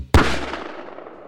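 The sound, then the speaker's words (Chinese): A single loud gunshot cracks out sharply, killing a bear that was charging at the shooter, then a long rumbling echo trails off over about a second. No one speaks. “将他一枪毙命。”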